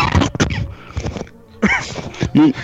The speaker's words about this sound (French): C'est pas moi qui tousse. Hein, euh, oui, désolé, excusez-moi, j'ai oublié de couper le micro.